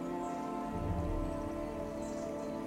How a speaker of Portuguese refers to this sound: Escuta a natureza. Escuta que próximo a vocês há um pequeno córrego.